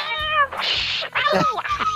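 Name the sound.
cat meowing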